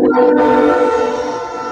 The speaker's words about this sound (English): Um, I I have a train that goes by. I know. I'm like, who's got the train?